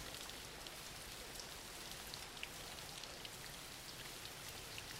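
Steady rain falls continuously, a dense even hiss of drops with faint scattered pattering on a surface, quiet and unbroken throughout with no voices.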